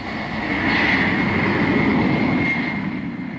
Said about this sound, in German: Weiß lackiert mit einem roten Seitenstreifen steht die Boeing 747 auf der Startbahn. Pilot Jack Weddell gibt Schub und die Boeing hebt ab zum ersten Mal.